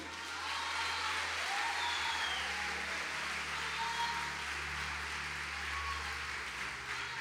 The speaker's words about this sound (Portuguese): Se você acredita nisso, aplauda o Senhor.